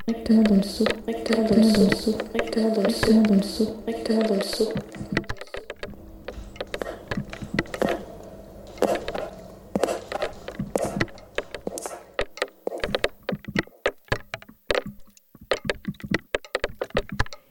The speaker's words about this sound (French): Le bruit sourd, c'est quand les petites gouttelettes tombent sur les bras, les petits bras tout fins en métal du râteau. Et quand on entend un bruit sourd, c'est que la goutte n'a pas eu le temps de toucher le bras de métal. Elle s'est écrasée